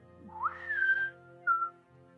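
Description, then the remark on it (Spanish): A person whistles a rising note that holds steady for about half a second, then a second short whistled note follows after a pause, clear with no talking. “Y hace un silbido especial con un.”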